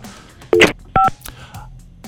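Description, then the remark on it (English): Two short, loud touch-tone dialing beeps sound in quick succession, each a clipped electronic double tone, followed by a quieter line hiss as a caller's phone call is patched through to a radio station. “Let's patch her through.”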